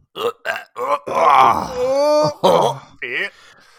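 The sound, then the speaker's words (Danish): A man groans and strains while reaching for his computer charger, in a run of short, throaty bursts and one long drawn-out moan with a wavering pitch, loud. “han er sådan helt væk, og så stønner han”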